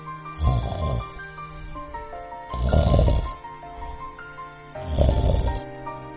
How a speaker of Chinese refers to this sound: 发动机刚熄火，就传来了鼾声阵阵。